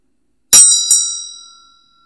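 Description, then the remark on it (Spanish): A small meditation bell is struck twice in quick succession, its bright metallic tone ringing out clearly and fading away within about a second and a half, with no voices. “ahora simplemente dejamos que todo se desvanezca, todas las imágenes, como el sonido de la campana.”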